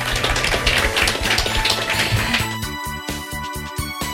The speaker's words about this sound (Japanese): どうぞ皆様大きな拍手でお送りください